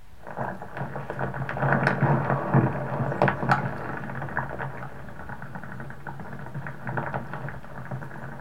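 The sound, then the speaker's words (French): A hydrophone buried in mud on an island picks up a dense, continuous crackle of tiny clicks, pops and bubbling patter, steady throughout, with no voices. “Et un hydrophone enfoui dans la vase.”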